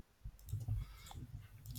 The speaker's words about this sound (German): Muss hier heute ein bisschen mehr klicken und scrollen.